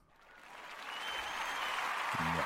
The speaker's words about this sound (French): Je pense que je devrais, je, pense que je connais mes effets spéciaux, là. On va, euh, on va se donner une belle petite main d'applaudissement.